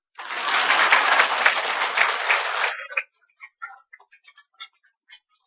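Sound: applause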